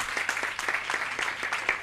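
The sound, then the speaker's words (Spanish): An audience at a live talk applauds steadily, many hands clapping in dense, overlapping bursts with sharp crisp transients, sustained at a moderate level throughout without any voices. “podéis mm. aplaudir, sí, sí, cuando queráis.”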